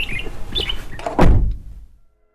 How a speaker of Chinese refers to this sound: 早上是伴随着窗外的鸟叫声醒来的。